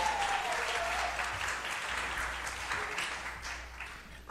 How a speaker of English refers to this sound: Morning. Now, you're clapping because you got rid of Sean. Is that why?